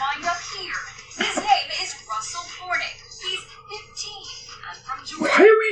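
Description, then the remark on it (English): Several children shout and squeal excitedly, their high-pitched voices overlapping continuously, with bursts of giggling and a louder yelp near the end, a faint steady hum underneath. “I'll just hear the like yelling or whoever you can hear the yelling.”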